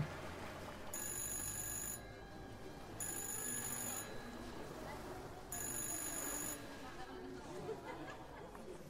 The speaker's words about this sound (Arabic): وطول الوقت ده التليفون لسه بيرن